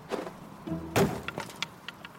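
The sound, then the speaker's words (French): A thrown pebble strikes one of the doors with one sharp, fairly loud knock, followed by a few faint clattering ticks as it settles. No one speaks. “Gala saisit un caillou et le lança sur l'une des portes.”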